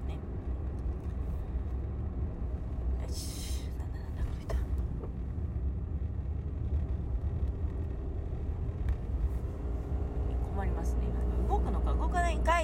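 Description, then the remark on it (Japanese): A car rolls slowly past, its low engine rumble steady throughout, with faint muffled voices in the background toward the end. “なんかゆっくりずるずるずるずる走ってる車がいてねびっくりしました”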